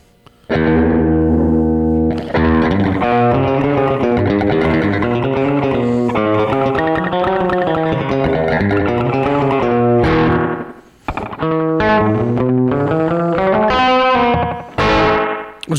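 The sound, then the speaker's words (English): An electric guitar plays ringing, sustained notes through a slapback delay pedal, loud, with the processed tone smearing each note into a short echo. No voices are heard. “actually makes a really interesting kind of reverb sound.”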